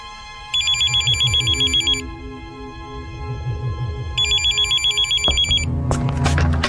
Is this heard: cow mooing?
no